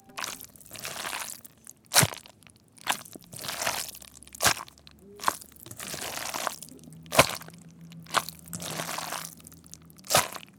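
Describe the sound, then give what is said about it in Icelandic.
A full plate of pasta being squished to mimic the sound of slime: repeated wet, squelching swells broken by sharp smacking clicks every second or two, moderately loud, with no talking. “svona á slímið að hljóma en þetta er þó ekki slím, þetta er fullur diskur af pasta”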